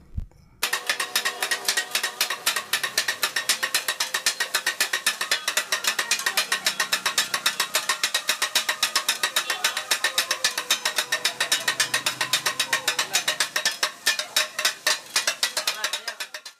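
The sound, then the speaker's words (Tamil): Metal dosa spatulas chop kothu parotta on a dosa griddle in a fast, steady clatter of sharp metallic strikes. The rhythm stays loud throughout, with a brief pause near the end. “உதாரணத்துக்கு தோசை கல்லில் கொத்து பரோட்டா போடுறப்போ அந்த தோசை கையை வச்சு கொத்தும் போது ஒரு சத்தம் வரும் பாருங்கள் அது இசையாக தான் நம்ம காதுக்கு கேட்கும்”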